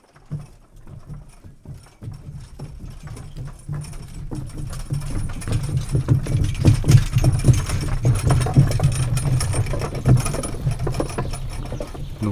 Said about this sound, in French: là, ce qu'on vient d'entendre, c'est un tombereau, c'est un peu l'équivalent du camion ben médiéval, donc une charrette tirée par des chevaux qui vient de passer euh, sur un pont qu'on appelle le pont dormant, qui est un pont en bois